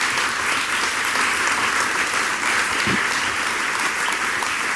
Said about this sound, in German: Herzlichen Dank. Danke auch an unsere Gesprächspartner. Vielen Dank. Ja, Applaus.